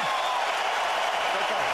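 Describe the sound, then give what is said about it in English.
A large arena crowd at a UFC fight roars and cheers in a steady, dense wash of noise that stays loud and unbroken throughout, with indistinct voices blended into the din. “I can smell, I can hear the crowd.”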